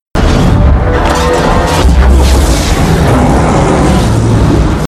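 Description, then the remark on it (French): A loud, steady sci-fi sound effect of a massive gate ring spinning as symbols are dialed, with deep booming low end and grinding mechanical texture that holds unbroken for about five seconds, alone. “et en fait tu vois pas la porte t'as juste l'impression que ça tourne parce qu'il te met du son que ça tourne mais t'as pas de plan dessus”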